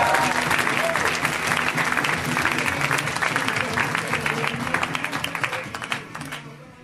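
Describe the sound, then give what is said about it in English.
A live audience bursts into sustained applause as comedian Brent Weinbach is introduced, dense clapping at steady volume before gradually thinning out toward the end, with faint voices mixed in beneath the claps. “Give it up for Brent.”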